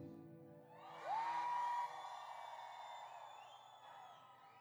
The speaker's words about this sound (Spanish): Levanten las manos todas las mujeres. Eh, Ahora solamente las mujeres griten.